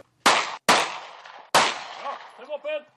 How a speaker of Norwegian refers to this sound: Det er fem skudd, det er fem mål du skal skyte på.